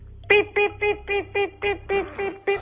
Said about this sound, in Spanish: Sonido de llamada entrante. Gracias por informarme. Sonido de una llamada entrante en un teléfono móvil Nokia.